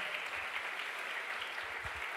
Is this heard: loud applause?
yes